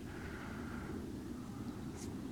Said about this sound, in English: can hear a distant plane overhead